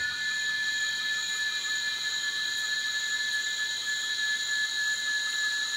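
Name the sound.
cicadas singing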